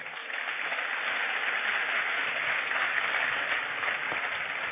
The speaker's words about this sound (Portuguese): Pode aplaudir o Senhor.